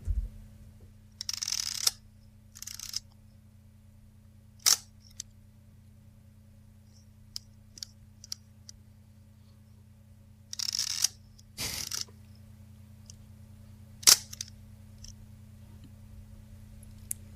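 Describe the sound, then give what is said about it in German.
Camera mechanics: a few sharp shutter clicks alternate with short, rasping, metallic ratchet rattles from winding the film and turning the dials, separated by quiet pauses over a steady low background hum. “Ja, ich finde auch dieses, dieses, äh, dieses Schnarzen, dieses Rasseln so beim Aufziehen und beim Rädchen verstellen, das hat so richtig so einen, so einen melodisch-metallischen Kling.”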